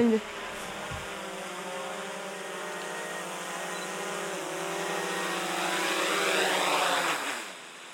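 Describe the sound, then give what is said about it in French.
A small camera drone's propellers whine with a steady, high-pitched buzz as it is brought back down after filming a panorama near Le Mans, the tone shifting slightly and growing a little louder before easing off at the end. “Je vais redescendre le drone et puis on va regarder ce que ça donne.”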